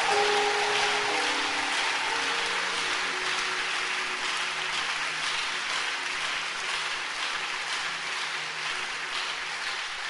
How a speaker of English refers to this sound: Let's clap our hands for the drama team.